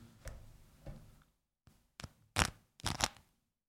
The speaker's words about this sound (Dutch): Als je namelijk met een mes zo door die Vianetta... Ik ga het nu proberen bij de microfoon te doen.